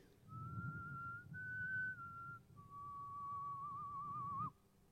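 A soft, gentle whistled melody carries clearly over a low rumbling background, a few sustained notes gliding smoothly before ending with a slight warble.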